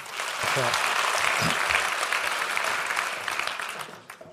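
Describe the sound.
Steady audience applause, a dense wash of many hands clapping at an even loudness for about four seconds before tapering off; a few brief voice fragments poke through early on.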